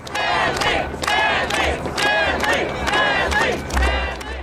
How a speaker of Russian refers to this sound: Люди у финишной черты начинают скандировать.